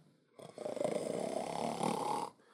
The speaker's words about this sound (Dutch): Als we eh, met deze Franse bulldog, alsof je aan het snurken is, weet je.